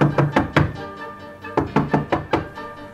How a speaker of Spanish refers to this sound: El lobo que ya estaba muy muy muy hambriento golpeó con fuerza la puerta de madera.